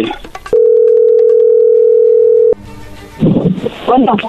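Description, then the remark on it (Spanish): A steady, unbroken telephone dial tone holds for about two seconds after some brief background noise, as a phone call is being placed, then cuts off and a person begins talking. “ahí se está marcando, ¿ok?”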